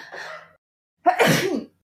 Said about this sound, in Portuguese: Ai, preciso espirrar.